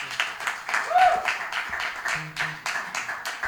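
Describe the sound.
An audience claps steadily for the evening's performing musicians, a dense, continuous patter of many hands, with a brief whistle or cheer rising above it near the start and faint voices mixed in.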